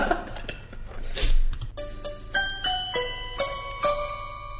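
A TV series opening theme: a brief noisy swell, then bright, chiming melodic notes played in a steady, evenly spaced rhythm, clear and moderately loud with no voices.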